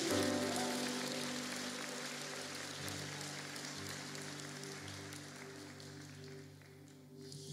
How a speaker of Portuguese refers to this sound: Aplauda Jesus, cara. Pode aplaudir. Isso é para Jesus.